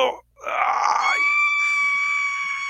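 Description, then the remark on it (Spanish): A man lets out a loud, high-pitched scream, starting with a short strained cry and then holding one piercing, steady shriek for about two seconds, alone. “Viejo, deja de gritar como una niñita, ya.”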